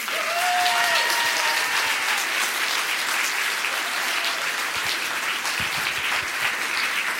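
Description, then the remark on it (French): Sustained audience applause for the host of slam poetry workshops, a dense, steady wash of many hands clapping at an even loudness for several seconds, with a brief whistle cutting through near the start. “Et enfin, la dernière lettre, ça sera le S, le S de s'il vous plaît, beaucoup, beaucoup, beaucoup de bruit pour l'animateur de ces ateliers slam”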